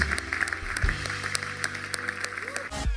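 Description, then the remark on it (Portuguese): An audience at a Hillsong church service bursts into applause for some people, a dense steady patter of many hands clapping over a few seconds, with a faint murmur of voices mixed in. “Será que nós temos dar uma salva de palmas a estas pessoas?”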